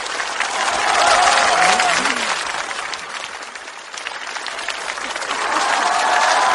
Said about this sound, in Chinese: 掌声有请冯巩闪亮登场。